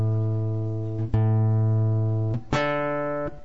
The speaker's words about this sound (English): Sorry, my guitar's kind of cold and it's really out of tune. Whoops.